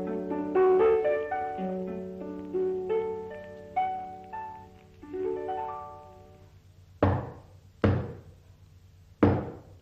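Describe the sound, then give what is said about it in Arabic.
Three loud, sharp knocks on a door, unevenly spaced, ring out after a stretch of melodic music fades away. “خبطة عالي افتح”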